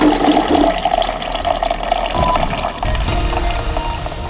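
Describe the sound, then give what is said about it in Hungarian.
A coffee maker gurgles and hisses loudly and steadily as it finishes brewing coffee, with bubbling, sputtering water noise and no talking. “Ah, közben elkészült a kávénk is.”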